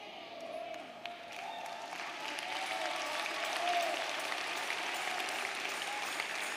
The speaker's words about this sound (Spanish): Si le está dando un aplauso, no te está saliendo.